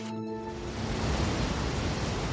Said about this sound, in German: Das hier sind die Minnehaha Falls, 16 Meter hoher Kalkstein und in Kaskaden herabfallendes Wasser, das vom Lake Minnetonka zum Mississippi fließt.